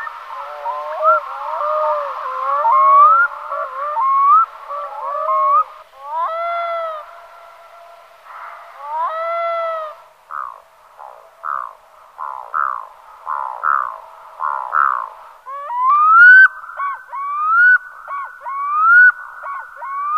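Black-throated loons call continuously, with overlapping mournful wails and quick yelping notes from several birds. The calls are fairly loud, with no talking.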